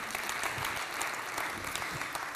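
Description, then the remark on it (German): An audience breaks into sustained applause, a dense, even wash of many hands clapping at steady loudness with no voices standing out. “Applaus”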